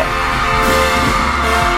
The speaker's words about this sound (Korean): 이제 10초 남았습니다. 3초, 2초, 1초. 빵빠레 주세요.